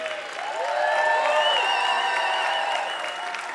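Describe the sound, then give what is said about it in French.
A concert audience in a hall applauds and cheers loudly and steadily for everyone in the room and for the musicians, with whistles and excited shouts rising over dense clapping for a few seconds. “Faites du bruit pour tout le monde dans la salle.”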